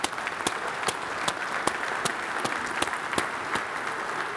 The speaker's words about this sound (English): But we do want to intentionally celebrate our moms today. So, can we celebrate moms today together just by clapping?